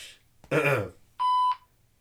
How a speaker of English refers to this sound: just for like, like a little beep for cursing.